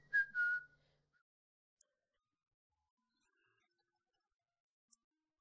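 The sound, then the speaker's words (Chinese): A short burst of whistling by a man as he almost skips into a shop, a bright gliding note lasting under a second with a low hum beneath it, followed by quiet and a few faint clinks. “接着，他吹起了一段口哨，几乎是跳着进入了店里。”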